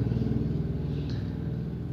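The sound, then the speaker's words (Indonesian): A motorcycle engine drones past outside a house, heard late at night from a front-facing bedroom, a steady low rumble that holds at a fairly constant loudness for the whole two seconds, with no one speaking. “aduh udah jam gini motor masih lewat aja mana berisik lagi tuh by the way kamar gue tuh di depan jadi kalau ada motor yang lewat gitu kedengeran apalagi suara berisiknya tadi tuh”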